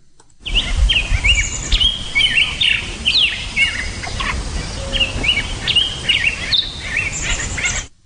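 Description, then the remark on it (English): Several birds sing and chirp continuously in the morning, their bright, overlapping trills and tweets layered over a steady low outdoor rumble. No one speaks. “And here's the sound score from uh, the 21st, and the first sound you're going to hear is bird songs in the morning.”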